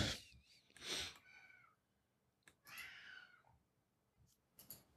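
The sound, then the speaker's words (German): A grumpy cat meows insistently, a couple of drawn-out, whiny calls with harmonic wavering, followed by a few short rustles and soft noises. “Die Katze randaliert. Die Katze hat schlechte Laune.”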